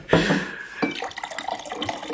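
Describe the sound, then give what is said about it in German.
A drink is poured into a glass: a bright splashing gush at the start, then a steady, rising trickle of liquid for a couple of seconds, with no one talking. “Ach, das, nicht, das klingt bestimmt total schön. Das ist ja immer so ein geiles Geräusch.”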